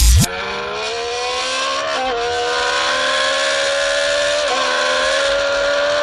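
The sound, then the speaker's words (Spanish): A steady, high-pitched whine imitating a race car engine revving, made by a boy with a soda can in a YouTube video, rising slightly in pitch with brief dips, continuous and loud for several seconds with no voices. “Es un, es un vídeo de YouTube donde un chico hace el ruido este con una lata de refresco.”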